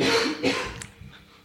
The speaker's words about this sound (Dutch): ik hoeste even in mijn, in mijn elleboog.